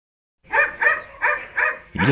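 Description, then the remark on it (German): A dog visiting residents at the Phoenix Seniorenzentrum in Ingolstadt, Germany, barks four times in a quick, evenly spaced series, loud, followed by the start of one more bark at the end. “Ja, wer bellt denn da?”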